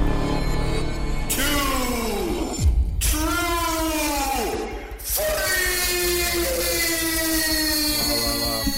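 A loud siren from the fire station next door wails in long rising and falling sweeps, repeating several times over a steady background rumble, with no one speaking.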